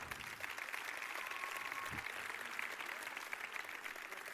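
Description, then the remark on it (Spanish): Steady, dense audience applause in Pontevedra for a representative of the Banda Municipal de Música de Pontevedra fills the whole stretch, a continuous crackle of many hands clapping at an even loudness with no voices standing out. “Eh, representando a Banda Municipal de Música de Pontevedra, agora sí, un forte aplauso.”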